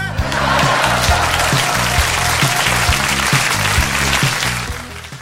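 applause

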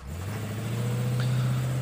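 car driving off

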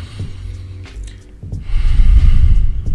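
deep inhale and exhale

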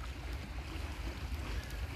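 wind blowing

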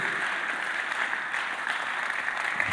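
audience clapping

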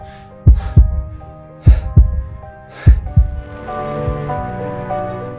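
heartbeat sound effect

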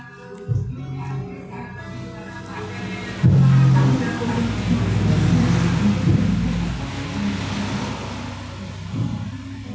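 cars passing by outside

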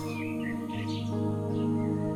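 birds chirping

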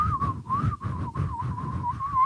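person whistling

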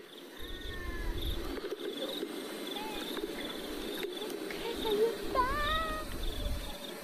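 cricket chirping

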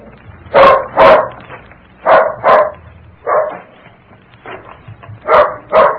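dog barking

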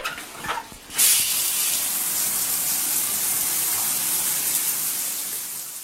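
shower water spraying

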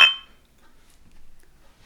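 glasses clinking

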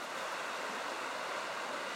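flowing stream water

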